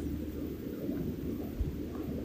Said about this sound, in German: den Wind, das Element Wind